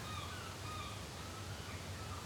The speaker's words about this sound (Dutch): En kijk eens naar die meeuw die daar vliegt.